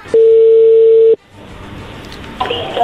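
A single steady ringback tone sounds on a phone line for about a second, a loud, even mid-pitched hum, followed by quiet line hiss while the call goes unanswered.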